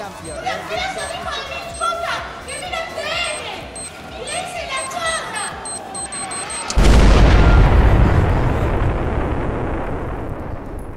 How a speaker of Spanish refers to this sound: un cacerolazo pidiendo que los políticos se bajen el sueldo.